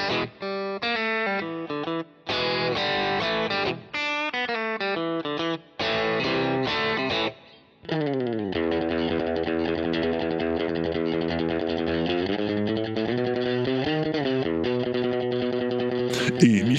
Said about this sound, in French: enregistrer 80 intros de guitare à la suite en 13 minutes à peine. Il commence avec les bluesmen des années 1930 et finit avec les groupes des années 2020.